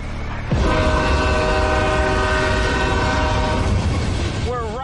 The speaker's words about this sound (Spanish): Estamos en el cruce del ferrocarril de Old Town Spring. El ferrocarril es importante para el pueblo porque permite que la gente venga aquí de todas partes.